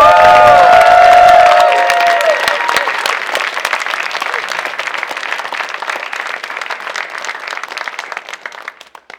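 A crowd bursts into loud applause for three people, with whoops and cheers at the start, then the clapping carries on as a dense, steady patter that slowly thins and fades toward the end.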